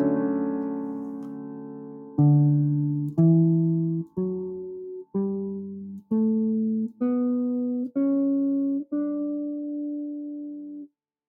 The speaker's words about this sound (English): let's play the major scale on the sound and see how it see how it goes